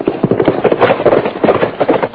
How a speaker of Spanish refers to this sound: Oiga, ¿no es su caballo ese que se arrancó? No puede ser, porque lo tengo persogado. No será el tuyo.